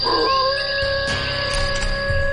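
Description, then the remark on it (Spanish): A long, drawn-out animal howl holds a steady, wavering tone for a couple of seconds, sounding somewhat far off, with no voices present. “Y a lo lejos el aullido de un animal.”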